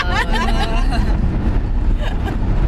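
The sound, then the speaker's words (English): Steady low rumble of road noise inside a moving car driving back from Sheboygan, Wisconsin, constant throughout, with indistinct voices and brief laughter layered over it. “This is the car episode”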